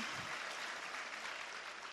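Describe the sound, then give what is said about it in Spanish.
A crowd at a convention applauds steadily, a dense wash of many hands clapping at once with no pauses, holding an even loudness for the full two seconds. “A veces para el nuevecito, y gracias a los que están aquí por primera vez, su primera convención, un fuerte, un fuerte aplauso, los felicito por haber tomado la decisión de compartir”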